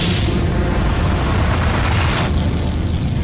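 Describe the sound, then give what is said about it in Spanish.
A loud, sustained volcanic explosion on Lanzarote in the Canary Islands roars throughout, scattering huge pieces of lava across the island, a dense, heavy rumble with strong bass that eases slightly near the end. No voices are heard. “Hace más de 300 años, en una isla de Canarias hubo una gran explosión.”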